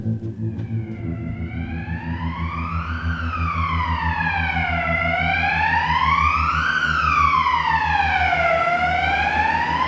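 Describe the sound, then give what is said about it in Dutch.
An ambulance siren wails in slow, rising and falling sweeps, loud over a low engine rumble, holding steady volume throughout with no one speaking. “Ambulance. Dat past wel bij ons thema.”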